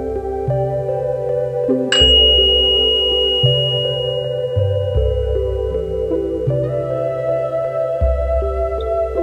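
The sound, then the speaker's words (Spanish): A single meditation bell is struck once, its bright tone ringing out and fading slowly over a soft, steady bed of ambient music with shifting low chords. “Y al escuchar la campana, cierra los ojos y haz presente este preciso momento.”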